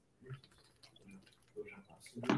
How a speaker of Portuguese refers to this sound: Vou tomar água. Eu também, ó, é, mas... tomar água. Saúde.